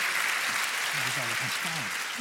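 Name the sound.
applause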